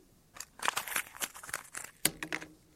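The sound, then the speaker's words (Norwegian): Crackly crinkling of twist paper being crumpled up at the Indian Summer evening in Tynset municipality, Norway, a burst of irregular rustles and snaps over a few seconds, ending in a sharper crunch. “Alle krøller sammen sine tvistpapir, kaster dem.”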